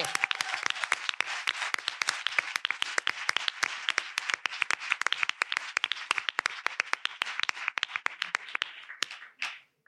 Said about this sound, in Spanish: Aplauso, por favor, grande.